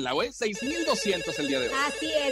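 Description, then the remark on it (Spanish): A booth telephone rings with an incoming call, its steady electronic tone repeating throughout while a voice talks loudly over it. “Ya tenemos llamadas, tenemos llamada, los queremos escuchar.”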